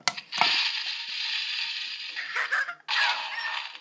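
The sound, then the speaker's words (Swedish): A TNT-shaped novelty lamp, being switched on, plays a loud electronic explosion effect: a steady, gritty hiss like a burning fuse for a couple of seconds, a brief crackling stutter and gap, then another blast of noise. “Jag kan ta med den hit så kan ni få höra hur det låter när jag eh, tänder på den. Det är en TNT.”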